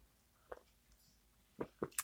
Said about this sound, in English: and I'm here with my first cup of coffee. And I saved the first sip for you.